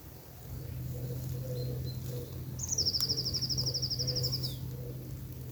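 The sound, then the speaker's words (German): A bird's rapid, even trill rings out fairly clearly over a low, steady hum at a quiet campsite, with faint scattered chirps from other birds in the outdoor background. “Man muss schon genau hinhören, damit man die Vögel hört.”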